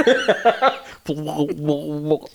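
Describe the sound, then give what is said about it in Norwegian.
A voice imitates a jellyfish with a few quick, breathy chuckling bursts, then a drawn-out, wobbly, warbling vocal tone. It is fairly loud, with no other sounds. “er lyden av manet, forresten.”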